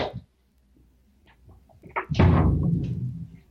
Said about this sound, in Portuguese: deixa eu só fechar a porta para não interferir. Um momento só.